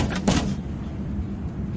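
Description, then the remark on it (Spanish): A man locked inside a car trunk bangs on the trunk lid from inside: a couple of quick, dull metallic thumps early on, followed by a low, steady rumble with no voices. “El hombre golpea la puerta del maletero.”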